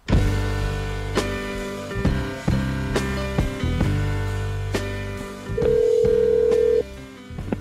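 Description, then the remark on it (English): Telephone tones with short, sharp clicks at a steady pace, then a bright, steady beep that holds for about a second before cutting off, as a caller joins a conversation by phone. No one speaks. “I'm Aaron Lammer in via phone.”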